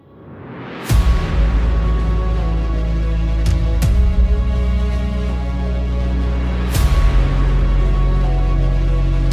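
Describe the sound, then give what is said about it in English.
Flashbang grenades thrown by police into a loud crowd go off: several sharp, booming blasts, about four, spaced irregularly over a constant roaring din, with no clear talking. “They can't get anybody in here, and the cops are throwing flashbangs into the crowd.”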